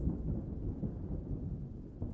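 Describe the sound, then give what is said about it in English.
A low, continuous rumble of rolling thunder fills the whole stretch, deep and steady with slight swells, sounding soft, with no voices present. “Listen to the rolling thunder as it comes toward us”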